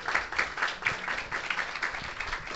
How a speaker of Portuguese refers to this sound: Ele que, que, venha até cá. Palmas, palmas, para ele.